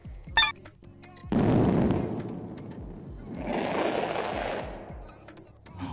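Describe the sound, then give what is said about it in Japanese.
Dense rapid crackling bursts, like fireworks popping in quick succession, swell loudly in two long waves, with a few sharp pops before and a lingering rumble between. “でもこれ多分花火だよねおそらくね何かがバチバチって感じになってるから余韻がね花火かなと思うんですけど実際どうなんでしょうか”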